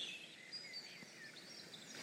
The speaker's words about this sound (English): oh, it's so relaxing. Hello, birds. It's just like the sound of water, birds. Sometimes I just open the app and just like leave it open so I can hear this like wonderful ambient sound while I'm doing my email. And it's like so soothing.